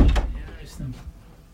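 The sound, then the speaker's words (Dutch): A door is shut with a short, solid thud and a brief rattle, followed by a quieter scrape or creak as it settles into the frame. “Ik doe even de deur dicht voor het geval dat ze anders...”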